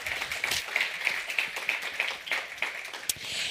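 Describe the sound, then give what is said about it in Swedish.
An audience applauds steadily to thank Lund University, many hands clapping in a dense, crackling wash at moderate volume for a few seconds, with no voices over it. “Och det här är då stöttat av Lunds universitet och de tycker jag vi ska tacka med en extra applåd för att vi kan vara här allihopa.”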